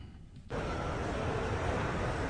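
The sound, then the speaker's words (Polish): After a brief quieter moment, a dense, steady wash of street ambience recorded in Rome swells in and holds: a constant background roar of traffic and outdoor noise with no clear individual events. “Ulicy nagranej e, w Rzymie.”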